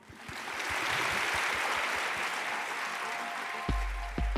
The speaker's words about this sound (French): Maintenant, on peut vous applaudir.